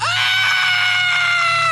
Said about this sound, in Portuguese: Aquilo gelou a minha alma, mas o que mais me aterrorizou foram os gritos e gemidos que ele soltou quando eu comecei a correr.